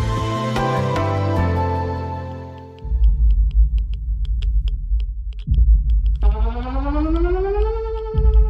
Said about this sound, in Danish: Sirenerne hyler, og bomberne falder over Danmark.